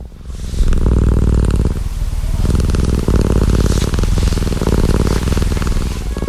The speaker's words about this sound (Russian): Ну и, конечно же, знаменитая кошачья кошачье мурчание. Куда ж без него?